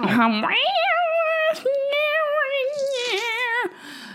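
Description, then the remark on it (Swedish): A woman imitates a cat's meow: one loud, drawn-out wavering yowl that rises at the start, briefly breaks midway, then carries on before trailing off. “Så tar hon in och låter som en katt. Mjau.”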